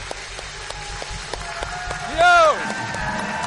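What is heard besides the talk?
audience clapping and cheering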